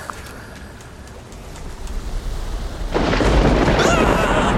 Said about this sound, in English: it's, really storming! Oh no, there's thunder! There's also lightning! they sound the same! The sound effects are very similar,